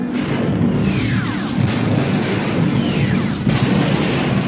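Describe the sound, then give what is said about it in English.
A loud, continuous roar of rumbling explosions with repeated booming bursts, from a chain reaction of internal explosions at the core of the Death Star, plus a couple of descending whooshing sweeps passing through the din. No voices. “The blast started a chain reaction of internal explosions.”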